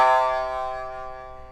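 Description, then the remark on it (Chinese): A single plucked note on a shamisen, a three-string lute whose strings are tuned C, G, C, with its small metal sawari device fitted on the first string. Its bright buzzing overtones ring out and fade slowly over more than a second. No one speaks. “就有很丰富的残响。”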